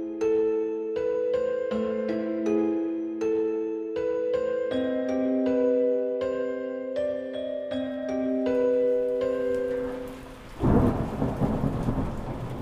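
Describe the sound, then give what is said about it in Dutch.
A gentle plucked, music-box-like melody plays for about ten seconds, then a loud rumble of thunder and a rush of heavy rain on a stormy evening abruptly take over near the end. “Op stormachtige avonden als deze kon Steve de speelgoedfabriek horen als hij in zijn kamer zat.”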